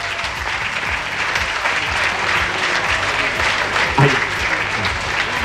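Steady audience applause fills the whole stretch, a dense wash of clapping hands at even loudness, with faint crowd murmur and a brief voice underneath near the end.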